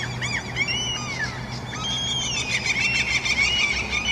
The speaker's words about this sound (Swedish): Det låter som att de skrattar efter att de har tänt eld på en kyrka för fan. Jävla black metal-fiskmåsar är det. De samlar på kraniebitar.